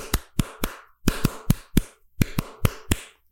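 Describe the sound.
A reggaeton beat tapped out by hand on a hard surface, sharp knocking hits in a syncopated, repeating groove, fairly loud with no talking.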